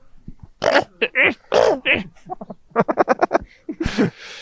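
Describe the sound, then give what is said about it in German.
A person imitates a small yapping dog with a bad cold in a raspy, slightly smoky, hoarse voice, giving a rapid series of short, scratchy barks and yelps, ending in a breathy rasp. “Ein erkälteter, kleiner, kläffender Hund.”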